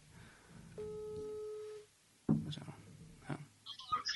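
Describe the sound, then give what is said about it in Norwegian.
A telephone ringing tone sounds once, a steady electronic beep lasting about a second. A brief silence follows, then muffled handling noise and faint voices. “Okay, da ringer vi.”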